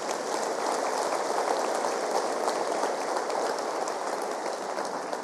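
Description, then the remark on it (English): A large crowd claps steadily and loudly for several seconds, giving the Lord a round of applause in the morning, a dense, even wash of applause with no voices standing out. “Let's give the Lord a round of applause this morning.”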